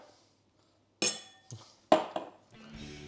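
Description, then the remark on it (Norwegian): Glasses clink together in a toast, several sharp bright taps in quick succession with a brief ringing tail, followed by a low rumbling sound at the end. “Skål. Skål, ja.”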